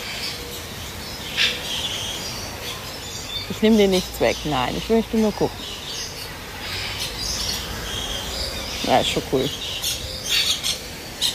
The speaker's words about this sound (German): Ja, sehen ein bisschen anders aus als so unsere Amseln und Drosseln und Meisen und was weiß ich was. Auch tolle Vögel, keine Frage, aber das hier ist echt einfach schön bunt und laut. Wobei nicht alle schön singen, muss man auch sagen.